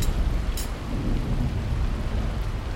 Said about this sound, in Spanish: En la inmensidad del silencio un trueno resonó.